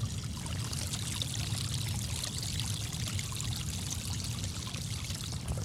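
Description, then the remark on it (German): Rushing water flows steadily, a dense, continuous churning and splashing of a fast runoff stream that formed after a downpour flooded a corner of a field and runs across a path into a forest, with no voices, holding an even loudness throughout. “Nach dem Regenguss gerade. Und da hat sich sogar hier so ein so ein reißender Bach gebildet.”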